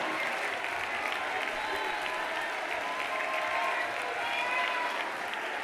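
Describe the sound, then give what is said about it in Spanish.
A crowd claps steadily and continuously, a dense, even wash of applause with murmured voices mixed in, holding at a constant loud level throughout. The people are applauding to praise God. “Aplaude y alaba, alaba con tus labios.”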